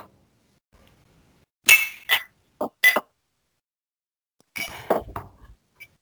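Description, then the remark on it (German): Drinking glasses clink together in a toast at an anniversary celebration: a few bright, separate clinks, then a quick cluster of ringing taps, with no one talking. “Lass uns die Gläser erheben.”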